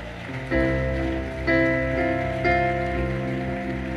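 At a church service, an audience applauds the Lord after a Bible reading, a steady, noisy wash of clapping blended with sustained keyboard chords that change roughly once a second. Nobody speaks.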